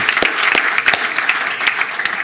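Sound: audience applause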